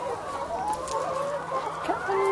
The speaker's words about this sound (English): Are you okay with the chickens? Yeah, yeah. So I'll leave you to the chickens.